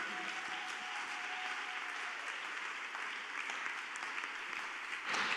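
A crowd applauds steadily throughout, a dense wash of many hands clapping at moderate distance, holding an even level before swelling slightly at the very end. No one speaks.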